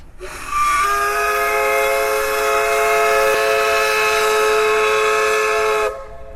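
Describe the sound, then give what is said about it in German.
A paddle steamer carrying 200 passengers on the Elbe, heading from Lauenburg to Bleckede, blows its steam whistle from mid-river to greet Lauenburg: one long, loud, sustained blast of about five seconds, a rich chord with breathy hiss, starting and stopping abruptly with no talking. “Schon legt er ab mit 200 Passagieren an Bord, dampft nach Bleckede und von der Mitte der Elbe grüßt er noch einmal unüberhörbar Lauenburg, die alte Schifferstadt.”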